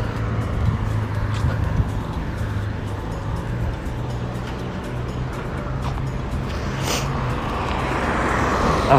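Steady urban street traffic in Bologna, Italy, at the corner of via Boldrini and viale Pietramellara: a continuous low rumble of cars and engines with a vehicle swelling past partway through, no voices heard.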